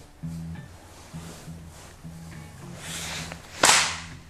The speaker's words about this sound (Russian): Хлопать. Будем хл- хлопать. Контрольный надо, хлопок.